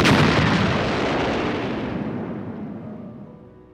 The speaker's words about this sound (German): Was war das für ein Geräusch? Das war doch direkt hinter mir. Sagen Sie, Chief, wie lange dauert es, bis eine Ihrer Granaten explodiert?